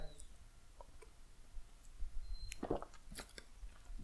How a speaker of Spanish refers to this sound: Pero bueno, eh, pausa para trago de café.